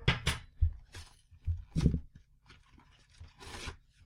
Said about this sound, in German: So, ziehe ich hinten die Pappe weg.